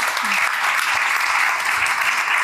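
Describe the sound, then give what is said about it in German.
Sustained audience applause for a discussion panel, a dense, steady wash of many hands clapping at an even loudness throughout, with no voices standing out above it. “Er sind natürlich erstmal einen ganz herzlichen Applaus an die Runde.”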